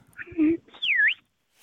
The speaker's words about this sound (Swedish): jag kan skramla fram en liten vissla här